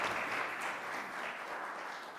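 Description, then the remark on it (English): A crowd applauds steadily for the actors who performed a morning reading of the Garden of Eden story, many hands clapping at once in a dense, continuous patter that holds an even loudness throughout without a break. “I got a round of applause for our actors this morning.”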